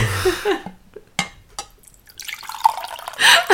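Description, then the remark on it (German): Tea splashing into a cup, a short pour followed by a few separate drips and trickles, with a brief louder gush near the end and no one speaking. “Ich wollte mir gerade Tee einschenken, aber ich habe gerade gedacht, das ist Quatsch.”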